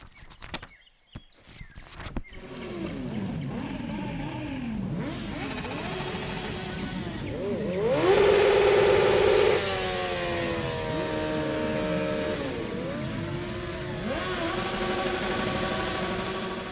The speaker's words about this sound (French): Ça, c'est le bruit de la moto avec laquelle on s'amuse à faire des burns dans l'appartement euh, quand on s'emmerde trop.